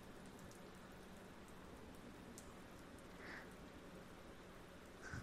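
Steady rain falls throughout with an even, dense hiss and patter, holding a constant level. A couple of brief higher-pitched chirps or drips stand out near the end. No one speaks.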